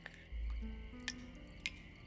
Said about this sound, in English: She woke to the sound of water dripping.